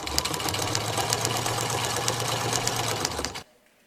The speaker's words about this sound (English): If you guys don't know, it is a sewing machine. Sewing machine.